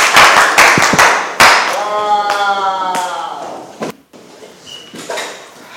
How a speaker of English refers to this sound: Clap your hands for Jesus and you may be seated.